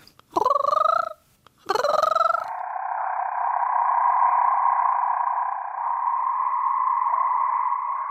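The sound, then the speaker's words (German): A red marbled rain frog, a species found only in a small area of Madagascar, gives two short metallic calls with a rising twang, followed by a long, steady, buzzing drone that continues to the end. “der Ton vom roten Marmorkrötchen ist nicht besonders typisch für einen Frosch”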